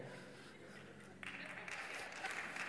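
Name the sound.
applause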